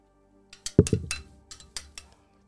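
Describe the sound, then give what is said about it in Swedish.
Several quick clinks ring out in a short cluster, like dishes or utensils tapped together in a toast over ice cream, each with a bright brief ring and no talking. “Ja men skål då”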